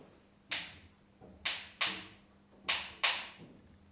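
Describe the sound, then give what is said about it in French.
Five faint hammer knocks coming up from the depths ring out in an uneven pattern, mostly in pairs, each blow trailing off in a hollow echo against a low background hum. “C'était le bruit d'un marteau, je n'en ai jamais entendu, dit Gimli.”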